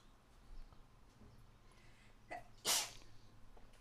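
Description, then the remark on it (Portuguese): A single sharp sneeze bursts out, with a brief inhaled buildup just before it, then quiet murmuring resumes. “Aí, mano. Santinho, pá.”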